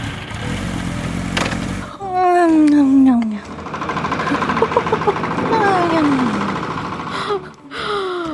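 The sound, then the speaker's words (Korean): Loud, rattling snoring of a woman friend asleep at night that rumbles and sputters like a motorcycle or tractor engine, rising and falling in long droning bursts with sweeping tones, with no talking. “오토바이와 경운기가 그녀의 코에서 드릉드릉 거렸죠.”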